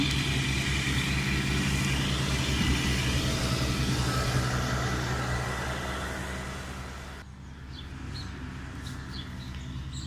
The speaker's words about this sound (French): Alors je coupe un peu parce que là c'est une tondeuse.